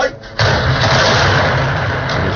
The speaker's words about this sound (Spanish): sonido real del ataque del ejército de Israel el día 18 de noviembre en Gaza contra un edificio de 14 plantas situado en el centro de esa ciudad.